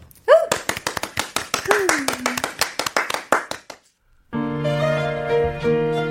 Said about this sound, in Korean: 그럼 저희 박수로 청해 듣겠습니다.